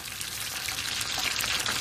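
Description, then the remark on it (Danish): A steak fries gently in a pan over too low a gas flame, giving a soft, steady sizzle with faint crackles and pops throughout, fairly quiet, with no voices. “Skal vi lige lytte til, hvordan det lyder, når man ikke skal stege, hvordan man ikke skal stege en bøf”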